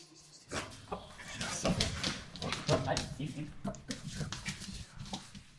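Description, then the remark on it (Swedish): A Japanese spitz dog whimpers and lets out a few short, excited barks as it greets visitors in the hallway of an apartment in Malmö, mixed with people talking. “Den japanska spetsen Miko möter i hallen”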